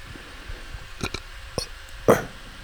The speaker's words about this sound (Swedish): ja, rätt dovt ljud på en rap egentligen. Till skillnad från smackande och andra fuktljud.